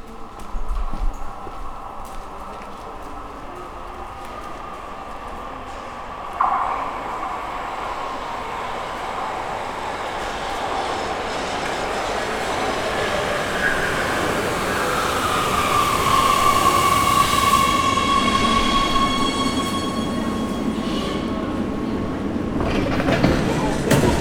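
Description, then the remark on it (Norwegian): A T-bane subway train rumbles steadily along the tracks, its electric motor whine rising in pitch as it picks up speed, with a sharp clank partway through. “videre inn på T-banen.”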